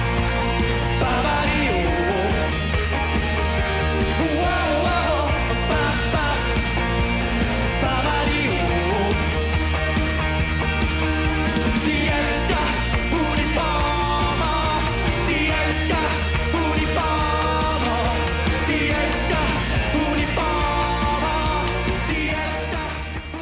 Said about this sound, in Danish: Lad os lige høre, hvordan det lød, da han i går sang … øh, …